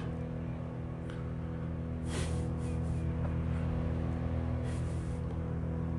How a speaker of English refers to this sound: There's a noise in the background you probably hear. I'm a whole block away from a truck that is just destroying the limbs of trees, grinding them up. And they are so, the truck is so loud that you can hear it almost two blocks away,